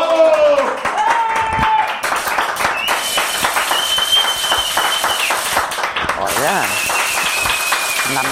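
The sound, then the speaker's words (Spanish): A crowd applauds with steady, dense clapping throughout, loud and continuous, mixed with shouting voices and a few high, drawn-out whistles. “Aplausos. ¡Bravo!”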